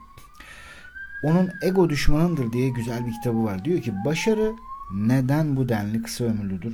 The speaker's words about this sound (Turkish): Umarım bu ambulans çok acil bir hastaya gitmiyordur bu arada.